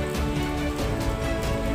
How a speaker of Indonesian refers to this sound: tapi tetap saja kau tak bisa sembunyi dari suara hujan meskipun kau bisa hindari basahnya Nyatanya, kau tetap tak bisa sembunyi dari basahnya suara hujan.